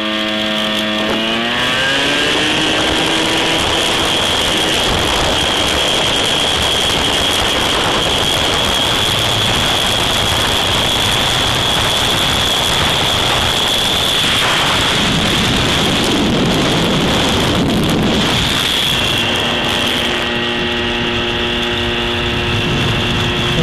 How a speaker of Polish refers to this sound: O, a tak się jedzie na motorze. Będzie głośno.